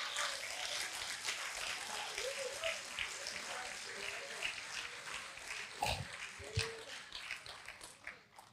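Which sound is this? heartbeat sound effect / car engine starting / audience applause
audience applause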